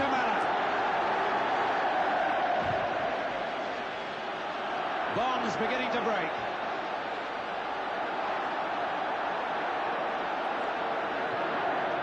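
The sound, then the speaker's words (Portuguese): A dense, steady roar of a football stadium crowd of fans fills the whole stretch at constant loudness, with a brief swell of chanting voices midway and some speech mixed into the wash. “Puta, mas olha o barulho da torcida, parece que tá cagando numa arquibancada.”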